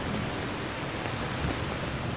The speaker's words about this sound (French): Il pleut des, centaines de litres d'eau.